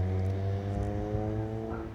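A car engine hums steadily, a low, even drone with a slight rise and fall as it cruises along a harbour street on Samos in the evening. No voices, just the continuous motor sound.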